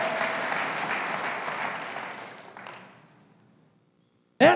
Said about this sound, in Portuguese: Então aplauda o Senhor bem forte em toda a tua vida, em todo o teu coração. Vamos lá.